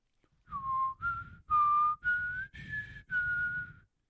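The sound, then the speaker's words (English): A person whistles a short tune from The X-Files TV theme, six sustained notes each held about half a second with brief gaps, the pitch gliding slightly between notes; clear with no talking. “I was gonna say the X file, the first X file, the first X file. Now somebody who could actually whistle feedback on my whistle.”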